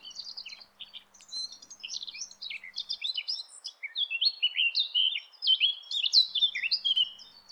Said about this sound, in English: So although we're I mean, although we're talking mostly about winter birds, it's probably worth listening to the, the summer song of a blackcap here so people can hear how beautiful it is for themselves themselves.